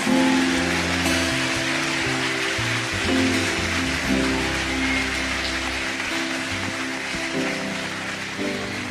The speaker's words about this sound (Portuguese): Meu Deus, aplaude Jesus porque ele merece.